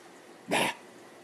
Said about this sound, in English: Mom had taught Zoe to say mama back when the pup was young